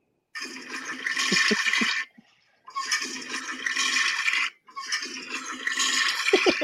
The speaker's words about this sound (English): He's yeah, got that. Uh, is that the uh, water saver flush right there? Yeah, I guess. You have to do it a bunch of times to get it all down.